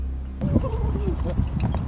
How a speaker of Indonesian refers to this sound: Di dalam video itu, kedengaran suara kuda sama suara kerincingan khas kereta kencana. Awalnya mereka kira itu suara angin, tapi pas mereka dengar dengan seksama, mereka nyimpulin.